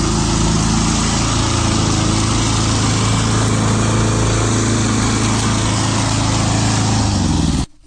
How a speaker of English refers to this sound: My friend Mary's lawnmower, she's a gardener in Ukiah. Go Mary.